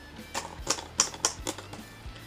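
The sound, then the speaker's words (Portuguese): A portable typewriter's keys strike in a quick, uneven series of sharp clacks, about six or seven in two seconds, fairly loud with light mechanical thumps between, no voices. “Tá dando pra ouvir a máquina bater?”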